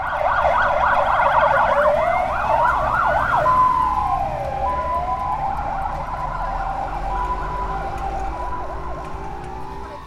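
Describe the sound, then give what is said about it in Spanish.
An ambulance siren blares as the ambulance sets off carrying a man in critical condition, switching between a rapid yelp and a slower wail, then easing slightly in volume as it pulls away over a low traffic rumble. No one speaks. “Intentaban reanimarlo con oxígeno. Arrancó la ambulancia.”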